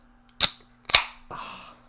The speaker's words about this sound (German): So. Ich mach gerade mal das Bier hier auf, Moment.